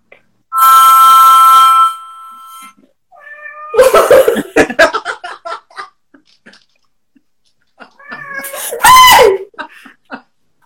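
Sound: cat meowing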